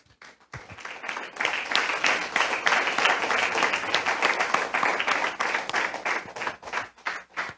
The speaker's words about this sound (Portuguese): Amém? Aplauda o Senhor.